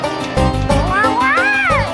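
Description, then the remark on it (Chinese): A green robot's voice imitates a cat's meow: one drawn-out, nasal call that rises and then falls in pitch, fairly loud, over a steady low background sound. “跟上它，记住要像猫一样。 也许我应该继续试。喵。”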